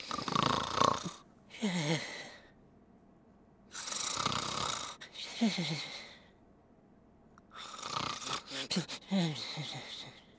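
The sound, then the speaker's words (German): Three rounds of rhythmic snoring from Kopernikus, a tom cat character who has fallen asleep, each a rasping inhale followed by a rumbling, fluttering exhale, spaced a few seconds apart with quiet pauses between them and no talking. “Äh, ich glaube, Kopernikus ist tatsächlich eingeschlafen.”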